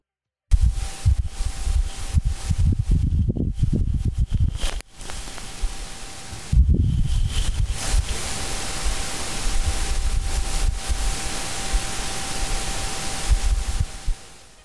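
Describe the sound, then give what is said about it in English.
A Martian dust devil recorded on Mars by the SuperCam instrument atop the Perseverance rover: steady static-like hiss with two rumbling gusts of wind that swell, a brief lull between them, and a faint constant whine underneath. No voices. “If you're SuperCam, the Los Alamos developed instrument atop the Perseverance rover, not only did you do all the above, you also recorded the sound of a Martian dust devil for the very first time.”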